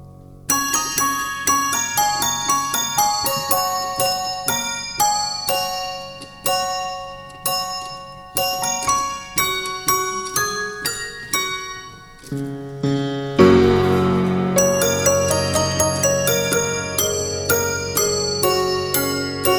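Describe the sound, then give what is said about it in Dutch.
A large church bell, hanging about a meter above the floor, struck again and again with a wooden hammer, each soft, rapid hit ringing out in layered, sustained tones, with a fuller, deeper stroke partway through. No voices. “De man neemt een houten hamer en slaat op je klok.”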